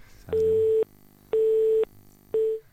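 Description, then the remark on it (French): A telephone line tone of an incoming call beeps three times in an even on-off rhythm, each steady electronic tone lasting about half a second, loud and clear with no voices, the last beep cut short. “Je crois qu'on a quelqu'un au téléphone.”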